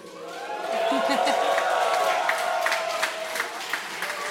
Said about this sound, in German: So, und jetzt bitte mal alle jubeln, klatschen, schreien.